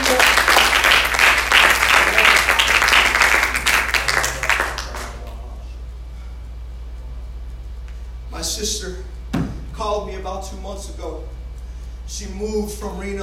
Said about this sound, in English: Praise the Lord. If you believe that, give God a hand clap of praise.